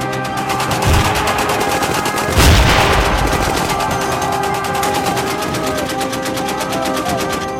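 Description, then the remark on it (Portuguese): Heavy battlefield gunfire from American infantry repelling waves of Japanese attackers from Maruyama's forces at the American defensive perimeter: rapid, sustained machine-gun bursts crackle continuously, with a louder blast-like burst about a third of the way in, all dense and loud throughout. “Mas as mesmas eram rechaçadas diante do pesado fogo da infantaria norte-americana, que concentrou todo o seu poderio contra as ofensivas japonesas.”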